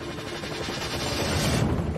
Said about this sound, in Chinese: 直升机越过了海岸线，向大西洋深处飞去。在海上飞行了约半个小时，直升机向下方的一艘巨轮降落。